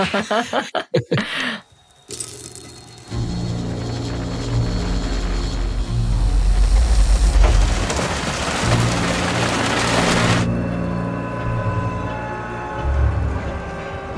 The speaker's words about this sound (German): Die Stadt ist wegen des Feiertags brechend voll. Selbst bei dem Regen.